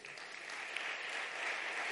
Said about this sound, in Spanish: Amén, dar un aplauso al Rey.